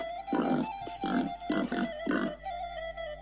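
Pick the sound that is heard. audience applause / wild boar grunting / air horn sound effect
wild boar grunting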